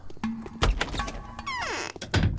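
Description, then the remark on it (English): The front door of a building opens and shuts: a solid thunk, a brief creaking squeal as it swings, then another heavy thud as it closes, with no voices. “Let's just use the front door first.”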